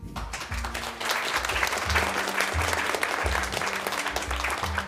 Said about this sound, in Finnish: Annetaan kaikille naisille aplodit.